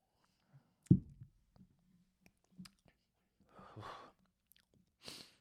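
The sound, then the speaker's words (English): Quiet sipping of Four Roses Small Batch Select bourbon whiskey: a soft knock of a glass, then two faint airy slurps a second or so apart, with small mouth sounds in between and no talking. “Uh, let's drink whiskey.”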